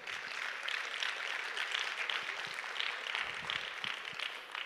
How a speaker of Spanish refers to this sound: ¿Cuántos dicen amén? Dale un aplauso al Espíritu Santo.